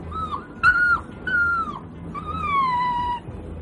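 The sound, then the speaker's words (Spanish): A countess's small dog on a train whines fearfully in four high, thin cries, the last one long and slowly falling, over a low, murky background rumble with no talking. “tiene miedo de algo. La condesa que lleva el, perrito. El perrito botón.”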